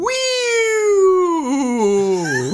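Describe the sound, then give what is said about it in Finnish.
A novelty firework lets out a loud squeal, one long whiny whistle that slides slowly downward in pitch and wobbles near the end, lasting a couple of seconds with no talking. “Ja viimeinen palkintoehdotus on Kissan Pier U. Mm. Boo. Syystä, Boo. että kyseinen ilo ilotulite sanoo”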